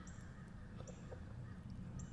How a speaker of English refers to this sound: The first thing I should mention is that the sounds of birds and wildlife that you hear in the background are real. Those are not sound effects added in. I am in a park. I am next to a wildlife preserve of some sort here in Greensboro, North Carolina